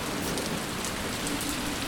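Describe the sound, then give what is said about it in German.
Steady rain patters down in a dense, even hiss of fine drops striking dry garden soil, continuous, with no voices or other sounds breaking through. “der Regen, der geht ja alle in die, in die Erde rein. Das perlt alles ab, so eine Scheiße.”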